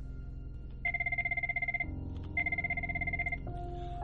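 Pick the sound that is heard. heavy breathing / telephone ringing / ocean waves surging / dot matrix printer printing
telephone ringing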